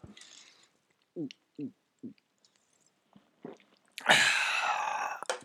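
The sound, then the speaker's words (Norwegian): Someone drinks cola: three short, low gulping swallows in a steady rhythm, followed after a pause by a loud, breathy, satisfied exhale lasting over a second. “Hører ut som du drikker noe der.”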